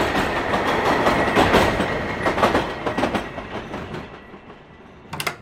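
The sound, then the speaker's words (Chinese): A train runs along the rails on a usual thirty-minute ride, with a steady, loud rumble and irregular clacking beats over the top, plus a faint high whine; it eases slightly before a few sharp clicks near the end. “平常三十分钟的路程，我感觉好像花了一整天在这该死的列车上，听着一个海豚在唱歌。”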